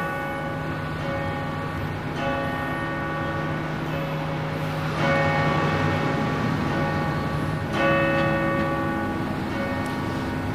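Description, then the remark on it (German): The bells of the Gethsemane Church ring an alarm in the dark, clanging repeatedly with overlapping strikes and long ringing overtones that swell and sustain over a constant low rumble, with no voices. “Die Glocken der Gethsemane-Kirche läuten Sturm.”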